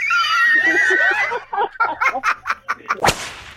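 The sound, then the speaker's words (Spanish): A goat bleat sound effect: a loud, quavering cry that breaks into a string of short stuttering bleats, ending with a sharp crack near the end. No one speaks. “la cabra”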